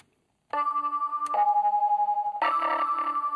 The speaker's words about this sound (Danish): Nu kan man godt høre, at den, den skulle forestille en, en, en legetøjsviolin. Og måske en øh, klokke.